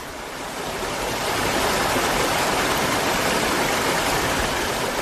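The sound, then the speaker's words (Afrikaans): Steady rushing of flowing water where two small streams meet on the border between the Mogalestadie municipality and Johannesburg Metro, constant, with a broad hiss that builds slightly in the first second and then holds evenly throughout; no voices. “Op die grens tussen die Mogalestadie munisipaliteit en Johannesburg Metro kom twee stroompies bymekaar”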